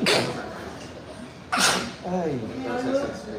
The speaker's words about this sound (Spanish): Estornudo, gracias, estornudo por acá para que no me regañen. Ah, me sueno acá.